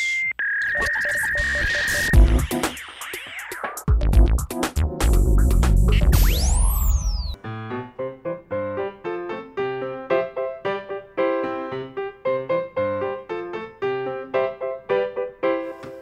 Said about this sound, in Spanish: Suena la cancioncita que le dice a nuestros niños que estamos aquí.